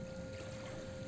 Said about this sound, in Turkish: Valla çok güzel ya. Şu dalga sesi